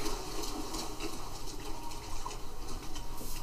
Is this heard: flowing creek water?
yes